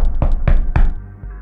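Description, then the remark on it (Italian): Three firm knocks on the door of a home after the doorbell got no answer, evenly spaced, each a solid thud with a short decay, followed by a faint low hum. “Allora prova a bussare, magari il campanello è guasto, è già successo.”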